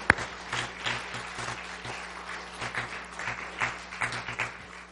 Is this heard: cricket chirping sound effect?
no